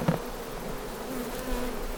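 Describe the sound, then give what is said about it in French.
A steady, dense buzzing of many honeybees swarming around a hive in the evening, a continuous droning hum with no pauses, moderately loud, with no voices. “qui est embêtant dans l'essaimage, bon déjà, euh, il y a la reine qui part, mais il y a beaucoup d'abeilles qui partent.”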